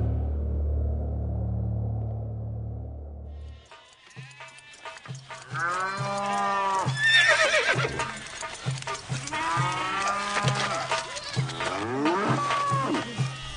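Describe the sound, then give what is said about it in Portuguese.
After a few seconds of low rumbling, a loud farmyard chorus breaks out: cattle moo over and over while horses neigh and whinny among them, with no one speaking. “Os egípcios levaram a José cavalos, ovelhas, cabras, bois e jumentos, e em troca ele lhes deu mantimento durante todo aquele ano.”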